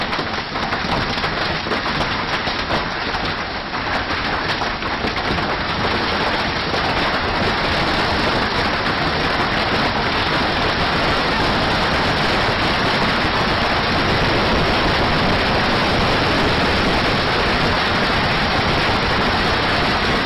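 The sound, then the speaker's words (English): A hailstorm pounds down in a dense, steady roar of countless hailstones striking surfaces, loud and unbroken for the whole stretch, with no voices. “there was a hailstorm that this is a, a private video”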